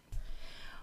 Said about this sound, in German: Und meine Hündin Bea, die war eben wach, jetzt liegt sie hinter mir auf dem Sofa und schnarcht. Also das ist der Hund, wenn ihr sowas hört.